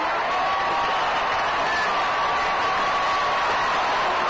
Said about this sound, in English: Big roar from the crowd. The Giants batting in the last half of the eighth inning have come up with three runs to move out in front of Cincinnati, four to three.